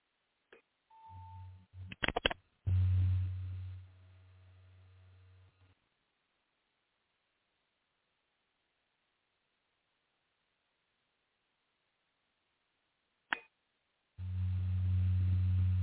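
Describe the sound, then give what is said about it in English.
A steady low hum drones in two stretches, starting and stopping abruptly with a few clicks and a brief higher tone between, separated by a long silent gap; no one speaks. “to sound like a real low humming sound.”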